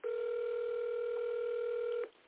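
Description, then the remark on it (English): A steady telephone dialing tone hums loud and clear for about two seconds as a radio host places a call, then cuts off abruptly, with no voices. “All right, let me see if I can if he answers the phone because I know he would love to share with this one.”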